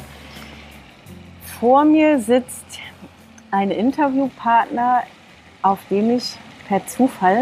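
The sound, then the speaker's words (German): A steady, fairly faint splashing hiss from a fountain in a park runs continuously in the background while a man talks close to the microphone. “Nein, es ist kein Wasserfall, sondern eine Fontäne, Falls du sie hören solltest, gewöhne dich einfach im Hintergrund an das Geräusch.”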